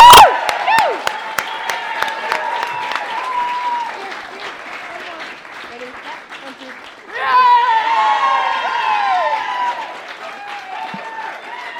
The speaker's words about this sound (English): And I want to hear you all roar now for our next team. And we're going to take two cups home to Clare.